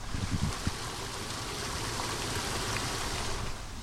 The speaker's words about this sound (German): Habe jetzt gerade, während ich diesen Satz sage, einen kleinen Flusslauf entdeckt, den ich noch gar nicht kannte und einen Mini-Wasserfall. Hör mal.